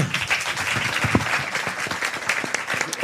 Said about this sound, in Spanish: Eh, pues un fuerte aplauso.